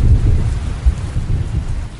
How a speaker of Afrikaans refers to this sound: Het jy al die donder weer gehoor? O, dit klink of daar 'n erge storm aan die kom is.